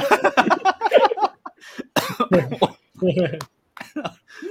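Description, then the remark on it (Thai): A burst of harsh, choking coughs and throat clearing from someone who choked on saliva, loud, broken into several rough fits with short gaps, mixed with strained vocal sounds. “ติดน้ำลายติดคอเลยจะมงครึ่งแล้วเนี่ย”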